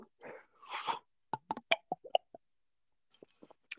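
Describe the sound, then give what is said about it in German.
A beer bottle cap is pried open with a brief fizzy hiss, followed by a quick series of sharp clicks and clinks, then a few faint taps. “Flaschenöffner ist auch, ist auch so überbewertet.”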